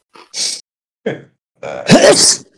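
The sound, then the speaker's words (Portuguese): A single sneeze: a few short, breathy catches of breath build up to one loud, explosive burst with a brief voiced edge, with no talking around it. “Saúde, caralho.”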